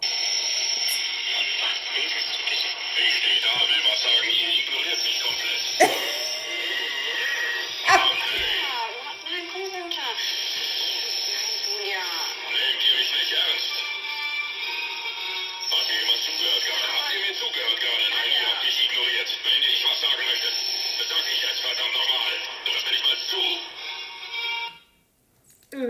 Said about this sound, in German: Also ich hoffe, ihr habt es einigermaßen gehört. Es ist so schlimm am Rauschen, aber ich habe es einfach nicht mehr besser hingekriegt.